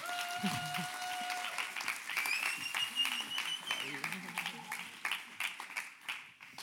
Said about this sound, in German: Klatschen, bis sie da oben sind, bis sie da oben sind.